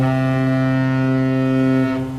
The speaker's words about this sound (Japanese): 汽笛の音はブブゼラじゃないですから、ね、注意していただきたいのこれはあの 蒸気タービン船の大西丸の汽笛の音を使ってますから ブブゼラではないです